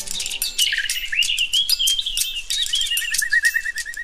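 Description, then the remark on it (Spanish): A European robin sings a high, thin, warbling phrase of rapid trills and sliding whistles, clear, continuing without pause for several seconds with no voices. “El petirrojo es uno de los pajaritos más madrugadores y por eso es de los primeros que cantan recién empieza a amanecer.”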